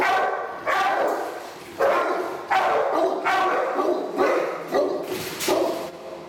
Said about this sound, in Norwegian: med mørkebrun pels, bulende muskler og en kjetting rundt halsen, står i buret sitt, stirrer i kamera og bjeffer.